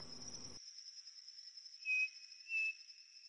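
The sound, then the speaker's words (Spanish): A striped cuckoo (Tapera naevia) in the northern corridor of Ibagué gives two clear, pure whistled notes about half a second apart, over a steady high-pitched drone of insects in the background. “Por eso vamos a ver y a conocer el canto particular de nuestro protagonista y las creencias que hay en el territorio sobre él.”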